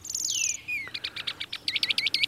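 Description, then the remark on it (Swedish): A wigeon's whistling call: a long, high whistle sliding downward, then a quick series of short, shrill whistled notes, clear with no talking. “Det här är en pipanka. Ett sånt här ljud?”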